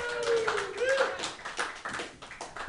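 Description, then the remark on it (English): A crowd breaks into steady applause, dense overlapping claps running throughout, with a few whoops and cheering voices rising over the clapping early on. “One round of applause for”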